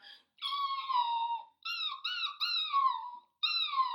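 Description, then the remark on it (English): A person imitates a dog's crying whimper with a series of high, drawn-out nasal whines, sliding downward in pitch, repeated in several close bursts with short pauses between them. “I can I perfectly imitate a crying dog.”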